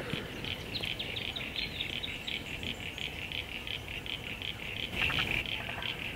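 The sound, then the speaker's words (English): A spotted marsh frog (Limnodynastes tasmaniensis) calls in a steady run of short, popping 'bup' notes, repeated evenly over a dense night chorus of frogs and insects, with no voices. “There's another one I can hear that's going bup, bup, bup, bup, and that's Limnodynastes tasmaniensis, or the uh, spotted marsh frog.”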